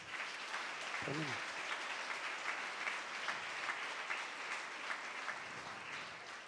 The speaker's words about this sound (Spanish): Dale un fuerte aplauso al Señor.